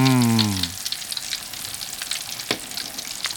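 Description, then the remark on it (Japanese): A scotch egg deep-frying in oil heated to about 170°C gives a steady, dense crackle with scattered sharp pops as moisture escapes from it in bubbles. A brief voiced sound fades out at the very start, then the sizzle continues alone. “今やっぱりこうじゅわーってどんどんどんどんこう泡が出てるじゃないですか、はい、これは中の水分があの抜けてる証拠なんですね”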